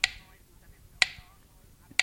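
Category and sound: household object, clock ticking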